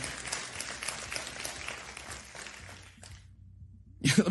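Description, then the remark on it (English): An audience breaks into sustained clapping and applause as a praise to the Lord for about three seconds, dense and fairly loud, then it cuts off abruptly; a voice begins speaking near the end. “Come on, somebody say amen today and give the Lord a clap and a praise if you believe what I'm saying.”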